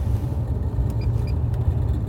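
A small, faint rattling clink in an old Jaguar being driven in western Oslo: a few brief, light metallic ticks over the steady low rumble of the running engine, with no one talking.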